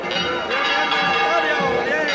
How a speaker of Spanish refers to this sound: está a punto de desembocar en la explanada del santuario con esos frontiles en la Junta de bueyes, frontiles también en plata, perfectamente repujados, campanillas en el remate superior.